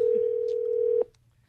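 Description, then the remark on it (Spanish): A steady, mid-pitched telephone ring tone hums evenly for about a second as a call is dialed, then cuts off abruptly, leaving near silence. Nobody speaks. “Márcale, pero márcale.”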